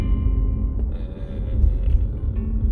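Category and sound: vehicle, car interior engine rumble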